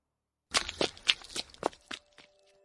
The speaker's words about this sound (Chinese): 这栋教学楼没有电梯，我们顺着楼梯一路往下狂奔。